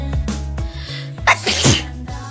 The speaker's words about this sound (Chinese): 我今天，我今天中午吃了抗过敏的药，还是要打喷嚏。